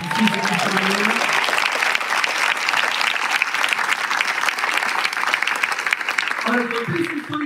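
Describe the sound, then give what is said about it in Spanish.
A crowd breaks into sustained applause in response to a call to applaud the blood of Jesus, a dense, steady wash of clapping lasting several seconds, with a voice speaking briefly over it at the start and again as it winds down. “¿Hay alguien que pueda aplaudir esa sangre?”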